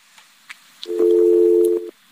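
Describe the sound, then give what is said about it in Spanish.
A steady, loud telephone tone holds for about a second after a few faint clicks, a flat buzzing pitch that cuts off abruptly, as a broadcast phone call to PAN senator Xóchitl Gálvez loses its connection. “algo pasa con la comunicación. Vamos a tratar de restablecer el contacto.”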